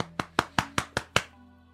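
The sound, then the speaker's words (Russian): A hand claps one-handed against a beer six times in a quick, even rhythm, each slap sharp and crisp with a short ring. No one speaks. “Слушай, если ты смотрел когда-нибудь «Версус» или «Слово», ты прекрасно знаешь, как можно аплодировать, когда у тебя одна рука, но там они обычно это с пивасом делают, и ты стоишь с пивасом и так...”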